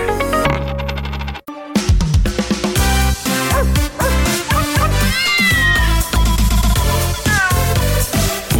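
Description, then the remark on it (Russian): A cat meows loudly several times, its high, wavering cries rising and falling over a busy, dense background, after a short burst of harsh noise at the start. “Вот такая зверушка.”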